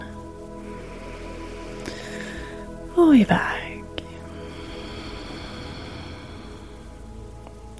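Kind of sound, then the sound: nature, rain falling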